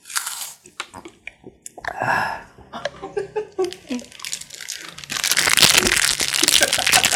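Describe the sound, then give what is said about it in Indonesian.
Crisp crinkling of plastic for ASMR, with sharp crackling bursts and crunchy snaps, growing into a dense, continuous rustle during the second half. “Lihat ada plastik-plastik kayak.”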